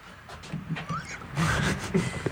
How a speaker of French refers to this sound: le, premier bruit qu'on entend, c'est une porte qui grince.